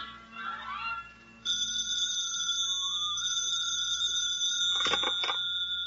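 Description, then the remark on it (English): A telephone bell rings in the Montague apartment in the morning, a steady, bright electronic trill that holds continuously after a brief softer start, fairly loud, with a few sharp clattering bursts near the end. “The phone rings.”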